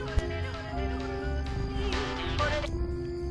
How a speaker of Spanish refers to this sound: Mira, y ese ringtone. ¿qué pasa?